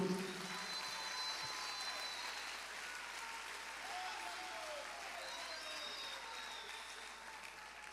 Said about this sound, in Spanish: ¿Cuánto estamos agradecidos por la palabra de Dios? Le podemos dar un fuerte aplauso en gratitud.